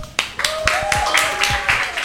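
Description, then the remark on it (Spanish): Applause with steady, sharp claps about four per second, loud and even, while a thin high whistle glides and wavers over the clapping. “Gracias a todo el equipo de Sonidos Independientes. Un aplauso.”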